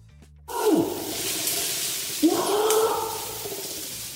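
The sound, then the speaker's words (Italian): A monkey sound effect: two loud, hoarse animal calls with sweeping pitch, the first dropping and the second rising and drawn out, over a steady rushing background noise. “Concordiamo, vediamo se c'è una scimmia.”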